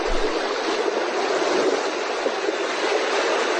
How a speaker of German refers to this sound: Augen zu, Meeresbrandung, im Urlaub. Alles ist gut.